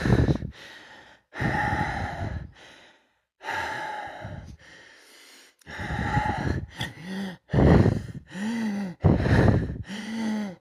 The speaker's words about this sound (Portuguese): A nossa respiração vai ficando mais rápida.